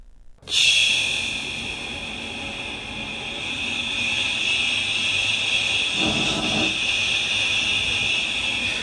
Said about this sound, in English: So that's ch extended over a long period of time. Yeah, and you hear how it sounds starts to sound a little bit like wind?